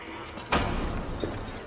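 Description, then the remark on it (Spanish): Jamie shuts a door, which swings closed with a single solid thud, followed by a brief trailing rattle and a faint second knock, over a steady low background hum. “Jamie cierra la puerta.”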